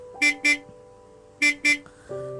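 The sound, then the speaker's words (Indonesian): A small blue truck's horn honks in two quick double bursts, beep-beep, a pause, then beep-beep again, bright, with a low engine hum continuing underneath. “Lalu tiba-tiba terdengar”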